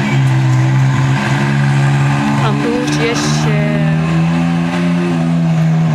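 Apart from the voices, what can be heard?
jeep driving past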